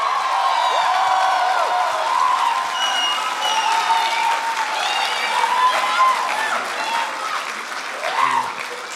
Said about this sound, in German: Können wir Jesus bitte einen noch viel größeren Applaus geben?